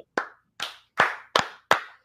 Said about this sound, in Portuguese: Eu pedi uma salva de palmas aqui em casa também.